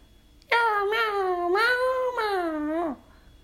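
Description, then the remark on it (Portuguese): A single long, drawn-out cat meow, loud, its pitch wavering and sliding over about two and a half seconds before dropping off, with no other sounds around it. “Gostaria de convidar o meu amigo Gatinho. Mau, mau, mau, mau, mau.”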